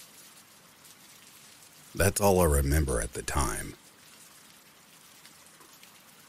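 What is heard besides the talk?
rain falling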